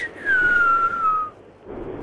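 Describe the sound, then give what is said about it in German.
A person whistles a song melody: one long, clear, high note that slides gradually lower for about a second, then fades out, leaving a soft background hum. “Habe ich übrigens selber eingepfiffen, ne?”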